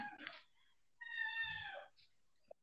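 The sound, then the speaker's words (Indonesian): A kitten meows: a short squeak, then a longer, high, wavering meow about a second long, with a faint click afterward. There's no talking. “Ya, suara anak kucing lu kedengeran aja.”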